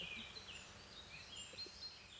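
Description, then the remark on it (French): Several birds chirp and twitter in short, high bursts against a quiet outdoor background at 8:30 in the morning on the Canal de Garonne. The calls are fairly soft, with no one speaking. “Encore plus en vacances et encore plus plus plus sur le canal de la Garonne avec les oiseaux qui nous disent bonjour.”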